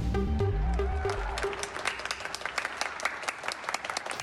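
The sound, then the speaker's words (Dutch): Many people clap together along the streets across the Netherlands in the evening, a steady, sustained three-minute burst of applause for healthcare workers that sounds spread out, following a brief musical tone that fades out in the first second or so. “Ja, zo klonk het gisteravond door de straten in ons land.”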